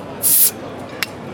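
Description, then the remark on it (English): A bottle is opened with a sharp burst of hissing carbonation lasting a moment, then a small click follows. It is fairly loud, with no voices. “So, hope you enjoy this one sit back, relax, pop a bottle.”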